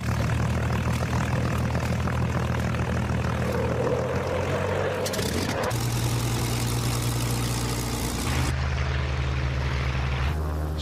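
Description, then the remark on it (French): A Spitfire propeller warplane engine drones loudly and steadily throughout at an air show under a threat of thunderstorms, a deep throbbing roar that shifts pitch abruptly a couple of times, with no voices over it. “Quand on aime voler, c'est le, le rêve ultime, c'est un Spitfire.”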